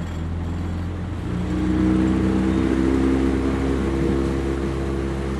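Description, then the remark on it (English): A motorboat engine idles with a low, steady drone, then revs up after about a second and holds a louder, rising hum as the boat sets off on the River Shannon, with no voices. “a large flock of which explodes into flight as the boat heads their way”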